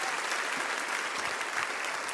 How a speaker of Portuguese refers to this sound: Vamos aplaudir essas vidas que estão chegando aqui, irmãos.